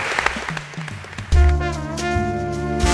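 An audience applauds with a dense patter of clapping, and after about a second a sustained, tonal musical passage enters and carries on over the fading applause.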